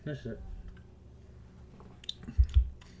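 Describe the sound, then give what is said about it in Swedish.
A wet first sip of beer and swallow: a soft slurp followed by two low gulping bursts near the end, after a brief hummed murmur at the start and quiet background. “Den har fått stå här och blomma ut, men nu ska jag ta en första klunk här.”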